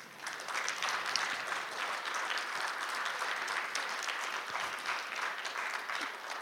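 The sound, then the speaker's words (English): Audience applause fills the whole stretch, a dense, steady crackle of many hands clapping at a fairly even loudness, with no voices rising above it. “The legalization of marijuana, you can applaud, sir. I just happy if you applauded.”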